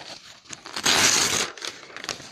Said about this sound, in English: And then what you're going to do with that sheet of paper, you're going to rip it up